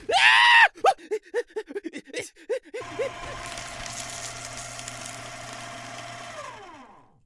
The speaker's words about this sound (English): Uh, maybe, but not when it comes after enough screaming to break the sound barrier.